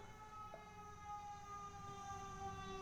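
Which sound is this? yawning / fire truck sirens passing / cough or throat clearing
fire truck sirens passing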